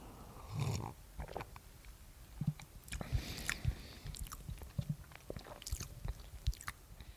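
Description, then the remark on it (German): Someone sips a cocoa drink, with soft slurps, swallowing gulps and wet mouth clicks scattered irregularly over several seconds, with no talking. “Ja, äh, und dieser besteht jetzt aus anderen Zutaten, aber trink doch erstmal einen Schluck.”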